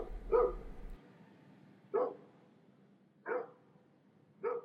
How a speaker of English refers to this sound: I heard the barking as she dashed away